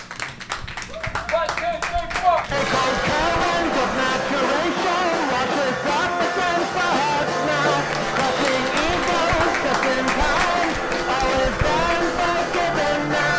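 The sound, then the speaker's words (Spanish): An audience bursts into steady, dense applause that starts suddenly after a brief moment and holds loud and even to the end, with voices mixed into the clapping. “Para pues aplaudir, coño.”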